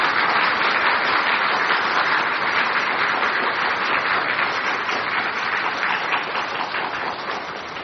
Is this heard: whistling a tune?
no